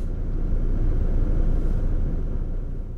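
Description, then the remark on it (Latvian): A car turns off the Valmiera highway and drives along the patchy asphalt road to Turaida, producing a steady low rumble of engine and tyre noise that holds evenly for the whole stretch, with no voices. “Kad ar mašīnu nogriežos no Valmieras šosejas uz Turaidu, es redzu, ka uz brauktuves tumšākie asfalta slāņi mijas ar gaišākiem.”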